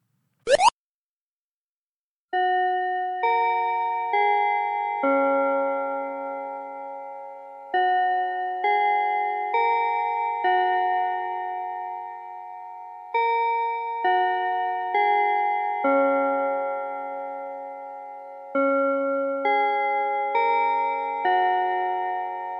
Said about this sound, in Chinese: 下课钟声响起来了